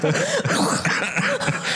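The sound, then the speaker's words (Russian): A loud fit of coughing with several rough, raspy bursts and throat-clearing sounds running together over about two seconds, with no words spoken. “Всегда начинаю кашлять в этот момент, знаешь.”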